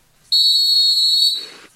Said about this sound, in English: All right. Blow the whistle time.